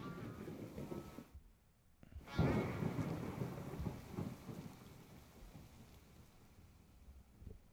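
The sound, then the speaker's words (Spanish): Steady rain pours down at the end of a song, with a deep rumble of thunder swelling after a brief dropout, the storm filling the scene as a dense, continuous wash with no voices. “¿Y ese relajante sonido de lluvia qué pedo? el final de la canción, güey.”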